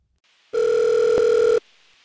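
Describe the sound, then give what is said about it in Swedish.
A single steady electronic telephone ring tone as a caller connects on the line, loud, holding one clear pitch for about a second before cutting off abruptly, with a faint line hiss before and after. “Vi har en inringare på linjen som vill prata om den, den senaste tidens våldtäkter i Malmö.”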